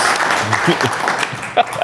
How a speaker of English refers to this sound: Uh, no golf clap. Real claps.